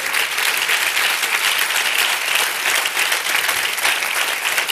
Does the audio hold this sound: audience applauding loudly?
yes